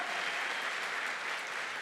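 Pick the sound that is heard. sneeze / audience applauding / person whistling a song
audience applauding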